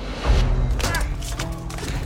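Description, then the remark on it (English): A bar fight in a club: a scuffle of heavy thuds and punches as fists fly and tailored suits tear, with several sharp, bright crashes of glasses smashing scattered over two seconds, busy and chaotic without any clear speech. “Fists are flying, glasses are smashing, tailored suits are tearing.”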